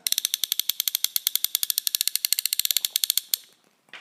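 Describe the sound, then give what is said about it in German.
A fishing reel with a trout design on it clicks rapidly as it is turned forwards: a fast, even run of sharp, bright ratcheting ticks for about three seconds, then it stops. No one speaks. “Was ihr braucht, ist ein schönes Klackern im, im Ohr.”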